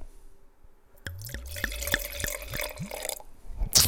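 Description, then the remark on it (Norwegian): A New Zealand Pinot Noir from a screw-cap bottle is poured into a glass in a steady run of about eight hollow, low glugs over a liquid splash, followed by a brief rattle at the end. “Eh, og da må jeg helle oppi litt i glasset, for nå må jeg begynne å lukte.”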